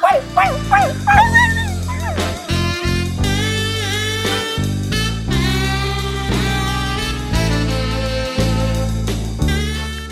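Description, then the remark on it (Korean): A person imitates a small puppy, letting out a quick run of four or five high, yelping barks at the start over a loud, steady musical backing that continues afterward. “언니 멍멍이 연기 최고예요.”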